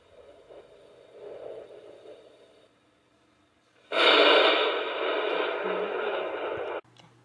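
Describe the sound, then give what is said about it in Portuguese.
Thunder: a low, moderate rumble fades into a brief hush, then a sudden loud crash erupts and roars steadily for about three seconds before cutting off abruptly. “Trovão.”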